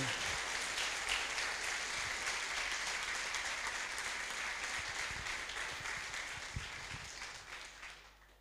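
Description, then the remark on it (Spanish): A church audience applauds steadily for God, the King, a dense wash of many hands clapping at once that holds for several seconds before gradually thinning and fading toward the end. “Dale ese aplauso al Rey.”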